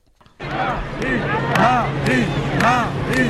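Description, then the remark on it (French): A dense crowd hubbub of many overlapping voices, steady, with scattered brief sharp knocks and bursts of chatter rising through the babble of an outdoor gathering at an agricultural fair in Isère, France, during a visit by Marine Le Pen. “En France, euh, Marine Le Pen est en visite dans l'Isère pour la foire agricole et elle a été bien accueillie”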